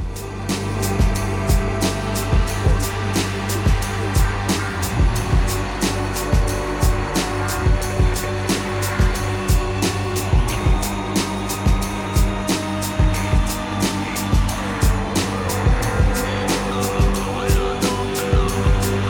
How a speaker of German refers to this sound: Wir hören jetzt von … den ersten Song des Albums … und der lautet ….